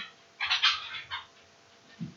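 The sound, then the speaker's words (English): A pet bird calls out in a few short, raspy squawks, a quick cluster followed by one more brief cry, with a soft low thump near the end. “She's like, I'm bird. That's what I do.”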